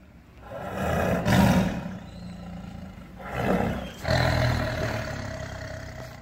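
A big cat, a saber-toothed tiger, roars loudly in several deep, rumbling growls that swell and fade over a few seconds, with no voices.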